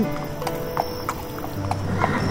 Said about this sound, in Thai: หลังจากกินข้าวกับพ่อแล้ว ชายหนุ่มก็ขี่ม้าผ่านไร่ เพื่อที่จะกลับไปยังกระท่อมของตน